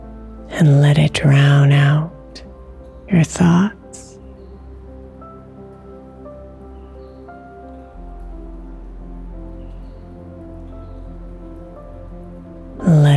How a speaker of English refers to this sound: with the falling rain.